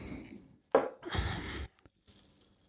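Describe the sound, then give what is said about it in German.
A liquid pours into a glass in a short splashing rush lasting about a second. A softer, fainter trickle follows a moment later. No one speaks. “So, machen wir den auch noch rein.”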